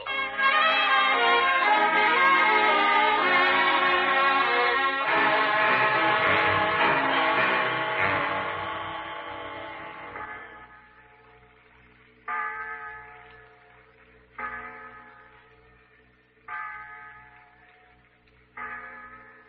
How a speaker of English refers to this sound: It's the clock in the insurance tower, Pete. Six o'clock time for children to be sitting down to dinner.